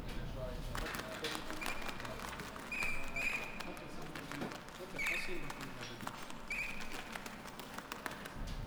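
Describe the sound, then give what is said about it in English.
Healthy nocturnal activity of a bat colony, recorded in the territory with bioacoustic monitors by the Department of Environment: a dense, continuous crackle of rapid clicks, broken every second or two by short, high, chirping calls, steady throughout. “I record the nocturnal activities of a colony of bats in the territory using bioacoustic monitors”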